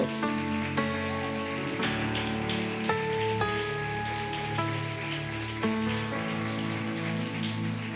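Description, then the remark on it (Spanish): An audience claps steadily for Christ in a dense, continuous wash of applause lasting the whole stretch, with sustained keyboard chords ringing underneath and no one speaking. “Dar un aplauso grande a Cristo.”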